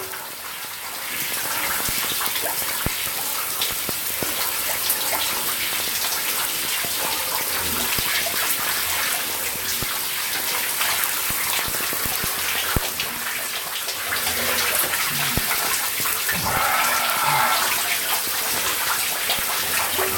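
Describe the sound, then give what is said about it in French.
Shower water runs over a Samsung S8 phone to test its IP68 water resistance, a steady, dense hiss and patter, fairly loud, with an occasional splash or thump; it continues unbroken for about twenty seconds with no talking. “Test IP68 Samsung S8 Sous La Douche”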